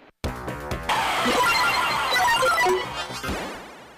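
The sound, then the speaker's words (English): Sound effects from a Twilight Zone pinball machine: a busy, loud cascade of electronic beeps and chimes layered over mechanical clattering and rattling, running continuously for a few seconds with no voices. “Twilight Zone is, is considered one of the greatest pinball machines of all time, and also po- popularity wise, it's always popular.”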